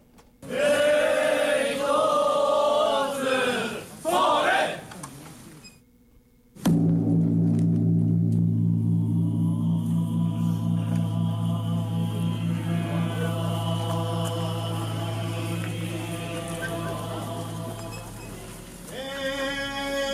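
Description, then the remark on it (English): A large Japanese Buddhist temple bell is struck once for New Year, part of the Joya no Kane ritual of 108 strikes. Its deep, booming hum lingers and slowly fades with a pulsing waver, after a few seconds of wavering, voice-like tones and a brief silence. “So what you heard there, that happens 108 times after, um, you know, around the New Year, and it's ringing a bell for all of the evil thoughts that humans have.”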